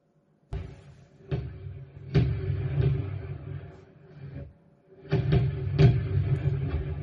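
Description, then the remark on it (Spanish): Repeated booming blasts from fireworks rockets going off in the background, several sharp bursts followed by rumbling echoes, in two clusters with a brief lull between them. “Esos, son los cohetes de fondo, ¿eh?”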